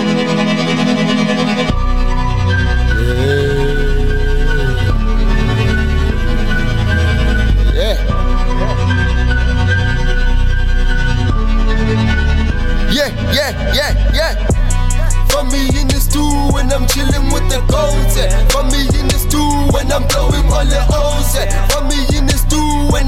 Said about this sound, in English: before I do that, uh, I have a song that I want to play first, and then I'm gonna be back with that one.